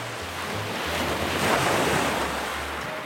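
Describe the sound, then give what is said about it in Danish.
Steady wash of ocean surf on a shore, a broad rushing hiss that swells slightly midway, with low wind rumble buffeting underneath. No voices. “Og så tager han den store, pinke flamingo-badedyr, han har under armen, og går ud i bølgerne.”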